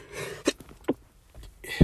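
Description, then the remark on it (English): A sudden sneeze bursts out with a sharp explosive burst, surrounded by short breathy gasps and exhalations; no one is talking. “Whoa, that sneezed. hurt.”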